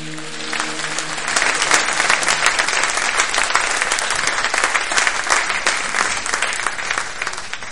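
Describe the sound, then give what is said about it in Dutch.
A church audience breaks into sustained, loud applause for the Lord after a prayer, a dense wash of many hands clapping steadily for several seconds without pause. “Geef de Heer een applaus en prijs zijn naam.”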